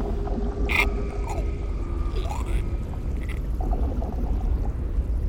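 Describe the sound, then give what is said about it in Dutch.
A single splash as a statue drops through a floor grate into the water of a gigantic underground basin, followed by a low, continuous watery rumble with faint echoing tones and sweeps, as if sounding underwater. “Dan, wanneer ik denk dat het beeld op de grond uiteen zal spatten, zakt hij door een grondrooster heen, een gigantisch bassin in, waar hij in het water plonst.”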